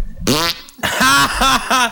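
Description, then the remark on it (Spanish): A series of loud, wet, flapping fart-like noises made by squeezing an armpit: one long blurt, a pause, then three or four quicker rhythmic pumps. “No puedo creer que le pasé el micro, güey, nada más para que hiciera esa Lo hizo con el sobaco, eh.”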